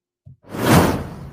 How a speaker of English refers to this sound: Swoosh.